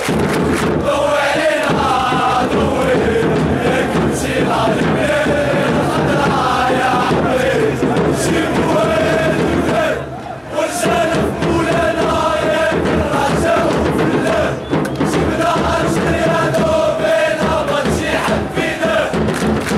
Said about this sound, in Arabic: يعني بعدما استمعنا إلى أصوات الجماهير المغربية